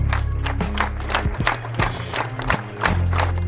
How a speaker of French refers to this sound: Des fleurs blanches dans la Loire, un symbole de paix qui donne le ton de l'hommage à Steve Maya Canisso samedi matin à Nantes. Pas de prise de parole, mais de longues minutes d'applaudissements.